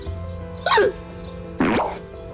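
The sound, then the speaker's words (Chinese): Two sharp, voiced hiccups about a second apart, coming one after another during a meal of rice and cutting off speech, each a short gulping burst that rises and drops in pitch, standing out clearly over a low, steady background hum. “就开始打嗝了，一下接着一下。”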